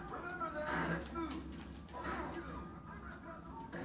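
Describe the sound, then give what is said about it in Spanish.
Low, rough pig grunts from a video game recur in short bursts, a few within a few seconds, over a steady background hum of game sound, as the player sets out to attack the pig. “Voy a chingar este puerco nomás porque está chingue, chingue la verga.”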